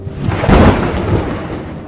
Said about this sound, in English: Then the angel took the censer, filled it with fire from the altar, and hurled it onto the and there came peals of thunder,